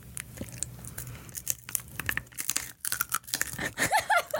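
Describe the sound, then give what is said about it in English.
Loud crunching as someone bites into a crispy pork rind snout and chews, with a string of irregular crackly snaps over a few seconds and no talking. “what a satisfying crunch down. Oh, that's just like I got pork rind.”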